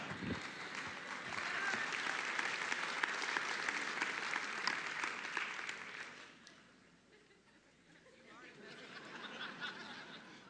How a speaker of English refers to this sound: I'm not sure why you're applauding.